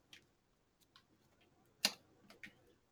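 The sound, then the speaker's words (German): A handful of sharp mechanical ticks from a microwave timer, spaced unevenly against a quiet background, with one clearly louder click in the middle. Nobody speaks. “ja, das klingt, das klingt nach der Mikrowelle.”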